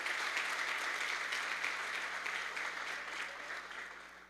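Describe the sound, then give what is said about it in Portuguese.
An audience applauds steadily, a dense wash of many hands clapping at once, sustained for several seconds and gradually tapering off slightly toward the end. “Aplauda aí, irmãos, aplauda aí.”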